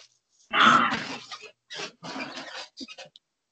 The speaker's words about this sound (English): That was the dog. Oh, the lunatic. Yeah. The lunatic. She's definitely the little uh, destroyer the past few days.